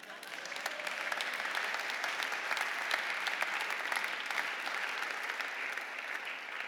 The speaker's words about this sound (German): Applaus!